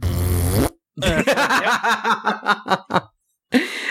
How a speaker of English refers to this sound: Voluntarily farted when you said that.